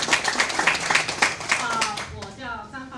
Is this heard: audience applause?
yes